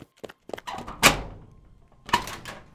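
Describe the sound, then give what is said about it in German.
A heavy door thunks open with a solid knock, followed by a second broad scraping bang a second later, with small clicks and rattles before it; moderately loud, no voices. “endlich eine Tür.”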